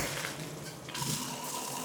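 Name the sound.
shower water running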